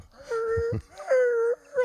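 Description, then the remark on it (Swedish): A person imitates a puppy's desperate whimpering: two drawn-out, high, nasal whines and a short third one, fairly loud, with no other voices. “Står på bakbenen och piper förtvivlat.”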